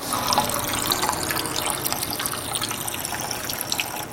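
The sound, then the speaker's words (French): Sparkling water runs steadily from a tap that people have used for over a century, in a continuous, hissing stream, fairly loud, with no voices over it. “mais quand même de se dire que il y a des personnes il y a plus d'un siècle qui ont appuyé sur ce robinet pour euh, sortir de l'eau qui allait leur faire du bien, je trouve que c'est pas mal quoi.”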